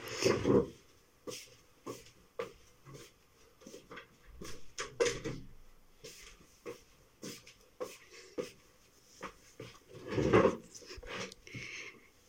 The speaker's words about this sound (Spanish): Voy a cerrar la puerta.